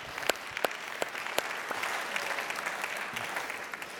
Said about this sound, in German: Du darfst dir mal einen Applaus geben.